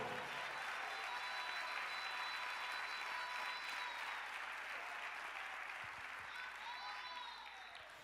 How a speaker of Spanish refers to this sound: ¿cuánto tienen ese gozo? ¿cuánto tienen ese gozo? Si tiene ese gozo, apláudale fuerte entonces.